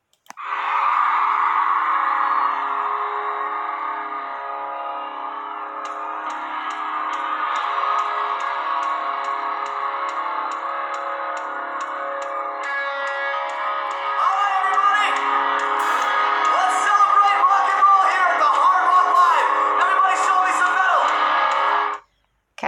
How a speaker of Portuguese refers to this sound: Então, assim, como é ao vivo, vai, vai ter o somzinho da galera gritando, ele falando com o público, e a gente vai traduzindo aqui, vai falando aqui.